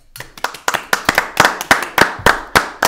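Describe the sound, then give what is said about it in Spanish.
Steady, rhythmic hand clapping, about ten sharp claps at an even pace, loud and crisp with no voices over it, like a small group applauding in time; applause for the business Servicall. “Y en esta ocasión yo creo que se merecen un fuerte aplauso los amigos de Servicall”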